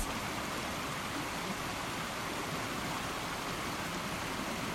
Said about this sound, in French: de l'eau qui tourbillonne dans les cailloux entre les rochers, de cette eau qui est le seul son qu'on entend aux alentours. Il n'y a pas de vent, on n'entend même pas le son du vent dans les arbres. C'est l'eau qui prend toute la place.